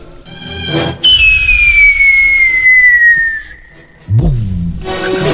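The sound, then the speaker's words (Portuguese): A whistling firework rocket shoots up very high, giving a loud, shrill whistle for about three seconds, its pitch sliding gently downward, with short noisy bursts at the launch and again as it ends. “Esse aí é aquele que vai lá altão, né?”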